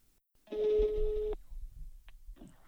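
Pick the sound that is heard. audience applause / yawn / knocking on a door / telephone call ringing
telephone call ringing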